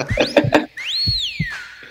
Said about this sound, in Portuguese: Ai, ah, chegou meu assobio e o meu coração radiofônico.